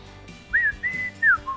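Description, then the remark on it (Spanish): A person whistles a short three-part signal call at a house instead of ringing the doorbell, clear and fairly loud: a rising note, a held tone, then a falling note, followed by a faint trailing bit, with quiet background otherwise. “Me acuerdo el silbido porque no podías tocar el timbre porque no despiertas a toda la familia.”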